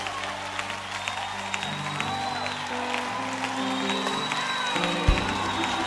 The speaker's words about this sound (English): Come on, clap your hands. It's good to clap your hands, Lord. Come on, clap your hands, Lord.